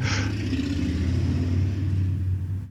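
A heavy motor vehicle rumbles past, its deep, throaty engine droning steadily for a few seconds before easing off slightly at the end. No one speaks.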